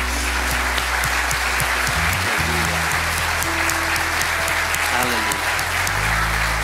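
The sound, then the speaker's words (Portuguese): Sustained applause from a large church audience, given to the Lord Jesus for the deacons' ministry, steady and dense, with a low organ or keyboard chord droning underneath. “E eu quero convidar a igreja agora a aplaudir não aos diáconos, mas aplaudir ao Senhor Jesus por esse ministério abençoado.”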